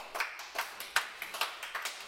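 A brief round of applause: a small number of hands clapping in a steady, quick rhythm, about nine crisp claps at moderate volume, with no talking.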